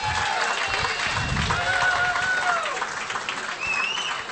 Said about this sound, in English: Give her a round of applause, ladies and gentlemen.